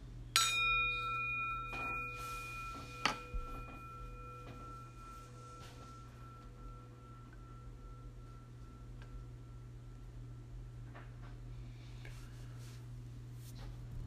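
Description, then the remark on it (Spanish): A single meditation bell strike marks the start of a guided meditation, opening with a bright, clear tone whose overtones hum on and slowly fade over several seconds, with a few soft clicks and a steady low hum beneath. “Como siempre, pues iniciamos con el sonido de la campana y terminamos con el sonido de la campana.”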